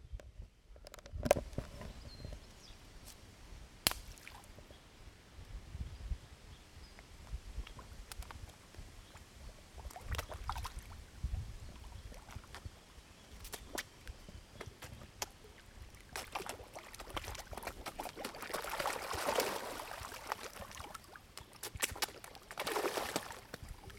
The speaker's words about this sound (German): Das Geschmatze, das sind die Karpfen. Die sind ein bisschen hungrig. Oh. Ich glaube, jetzt hat der eine gerade das Brötchen verschluckt.